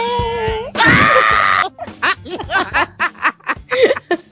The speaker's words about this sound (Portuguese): deu um grito tão grande que o fone dele mutou sozinho, cara.